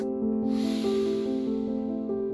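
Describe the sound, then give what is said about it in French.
A long, airy deep inhale swells in after a brief moment and gradually fades over steady, sustained background music tones, with no talking. “Donnons-nous quelques instants, juste pour intégrer le temps d'une respiration. Inspire.”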